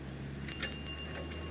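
A bicycle bell rings out in a quick double strike on a busy town street with traffic and passers-by, bright metallic tones that linger and slowly fade over a low steady background rumble.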